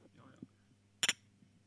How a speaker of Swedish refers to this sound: Otroligt försiktig skål. Vi brukar dänga i lite mer. Ja. Lite mer biceps bakom. Det här är väl ändå typ någon form av IKEA-glas, dubbelbottnad halvglas, plast.